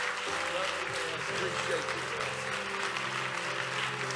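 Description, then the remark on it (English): An audience at the Tree of Life Church breaks into steady, sustained applause, a warm hand clap welcoming a young man to the podium to preach, dense hand clapping filling the whole clip at an even level, with a low murmur of voices and faint tonal sounds underneath. “Can you receive him with a warm hand clap?”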